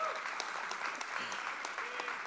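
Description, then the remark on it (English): A burst of audience applause, dense and steady, with many hands clapping at once in a continuous crackling wash that holds its loudness throughout without any voices on top. “they just gave themselves a round of applause.”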